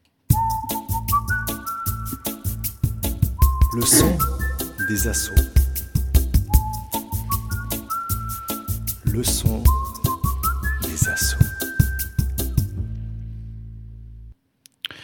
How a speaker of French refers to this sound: Alors avant qu'on continue, je vous propose d'écouter notre petit jingle des …, donc qui nous ont fait ce petit jingle pour le son des associations.